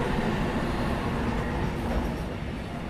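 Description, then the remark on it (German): A freight train rolls steadily along the rails at the freight station of the former wholesale market hall in Frankfurt's Ostend, a loud, continuous low rumble with faint wheel clatter mixed in, without any voices. “Über den angeschlossenen Güterbahnhof wurden Waren angeliefert und ausgefahren.”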